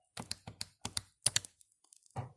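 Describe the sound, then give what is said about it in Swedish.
The emergency number 112 being keyed in on a phone: a quick run of crisp, clicky button taps falling in short pairs, followed by a pause and one softer thump at the end. No one speaks. “Jag slår in 112”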